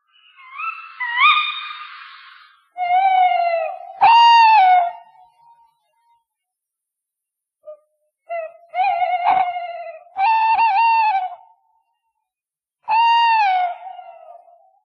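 A tawny owl hoots in a series of drawn-out, quavering calls separated by short silences, with a higher wavering note at the start; clear, with no other sounds.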